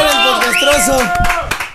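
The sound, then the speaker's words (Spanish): Audience applause welcoming a guest onto a show, a steady patter of clapping mixed under a loud, tonal melodic sound with gliding pitch, continuing for the full short stretch before easing slightly at the end. “Damas y caballeros, suerte el aplauso para recibir a la bella, a la hermosa”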